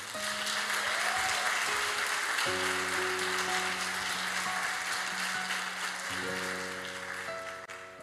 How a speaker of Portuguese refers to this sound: Então agradeço a Deus dando uma mega salva de palmas a Ele.